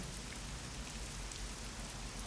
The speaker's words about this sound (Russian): Тишину улицы нарушает только шуршание листьев и стук дождя по окну.